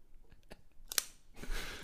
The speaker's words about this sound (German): Mit der Schere hier.